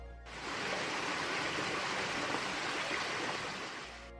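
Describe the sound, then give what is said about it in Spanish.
A steady, continuous murmur of flowing water, like a stream rushing over stones, used as background noise for recording psychophonies, even in level throughout, with no voices. “También podemos utilizar otro tipo de soportes, entre ellos el rumor del agua.”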